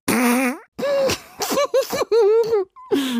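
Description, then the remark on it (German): Several loud fart sounds from a toy fart machine play in quick succession, each a buzzy, wobbling blurt with short pauses between, and no talking over them. “Ja, das ist ein Furzgenerator.”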